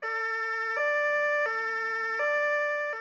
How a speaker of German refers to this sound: Also ich finde auch ein bisschen, dass bei der Polizei dieses Martinshorn ist auch so eine Art Hupen, weil das heißt auch Platz da, wir müssen durch oder bei der Feuerwehr oder Krankenwagen. Die Martinshornsirene ist wirklich nicht zu überhören